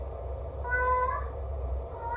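A cat lets out one drawn-out meow, clear, with its pitch rising and falling over a low, steady background rumble.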